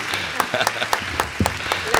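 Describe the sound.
A round of applause: a steady patter of sharp, crisp claps from a group, fairly loud and irregular, with faint voices murmuring underneath.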